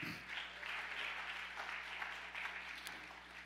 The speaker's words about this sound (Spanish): Dele otro aplauso fuerte al Señor.